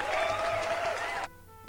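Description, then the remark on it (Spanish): A burst of crowd applause sound effect, played on request by a show's technician, a dense wash of clapping that plays for just over a second and then cuts off abruptly, leaving a faint hum behind. “Ahí están los aplausos, listo.”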